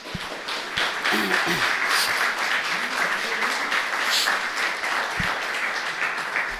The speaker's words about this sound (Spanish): Dese un aplauso. ¿No quiere darse un aplauso? Ese es medio aplauso. Dije, dese un aplauso fuerte.